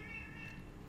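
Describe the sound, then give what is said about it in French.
A faint, drawn-out meow from a female cat in heat that has been roaming around a house for about three days holds a steady, whining tone for about a second over a low background hum. “Il y a un chat. Maintenant, c'est un chat.”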